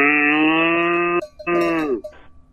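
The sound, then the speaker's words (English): A steer named T Bone gives two long, loud moos, the first steady and drawn out, the second sliding downward at the end, with a short pause between them and no talking. “T Bone the steer.”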